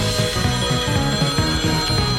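telephone ringing

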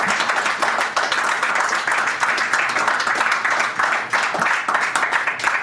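audience applause

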